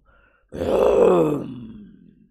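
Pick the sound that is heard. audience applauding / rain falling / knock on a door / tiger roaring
tiger roaring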